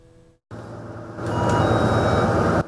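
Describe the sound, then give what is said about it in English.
A steady electronic beeping of a bus stop-request bell sounds over the loud rumble of the bus engine, with a thin high chime line appearing partway through, continuous without any speech. “Before getting off the bus, make sure you press the bell to alert the driver, unless you're in Taichung, where there's a new option.”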